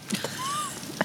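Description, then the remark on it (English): Faint, distant church bells ring out, a soft sustained tone followed by a brief ringing strike, heard alone against a quiet background with no talking. “Church, Church bells in the distance.”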